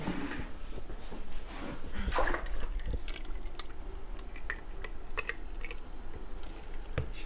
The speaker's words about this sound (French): Et là je verse dans mes moules en silicone. Non, c'est des moules de pâtisserie.